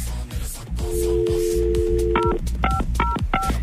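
A steady dial tone hums briefly, then four quick telephone keypad beeps sound in an even rhythm as a call is dialed to someone from Adıyaman, clear, over a dense background of music.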